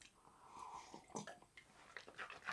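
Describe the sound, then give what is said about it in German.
Wet slurping and sipping of a drink after a toast, a few irregular noisy bursts of drinking with mouth and swallowing noises, fairly quiet overall with no talking. “extra laut jetzt ge geschlürft, weil niemand geredet hat.”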